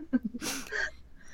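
A dog snores with one short, wheezy snorting breath, rough and airy, fairly quiet, with a few low grunty tones just before it and nobody speaking.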